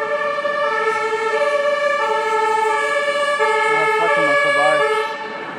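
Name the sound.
fire engine siren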